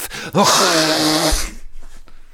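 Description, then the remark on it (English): A loud nose blow: one long, honking blast lasting about a second, trailing off into a few quieter breathy snuffles. “No, I just need to blow my nose.”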